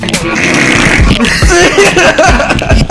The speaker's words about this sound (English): Just fart into the mic and then slow it down.